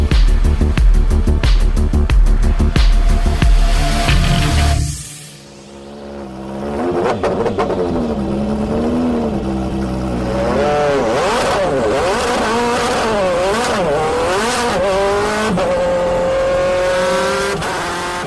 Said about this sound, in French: Les sons que vous venez d'entendre proviennent de la Audi R8 de course, pilotée par le Danois Tom Christensen, recordman des victoires aux 24 heures du Mans, où il est monté à neuf reprises sur la plus haute marche du podium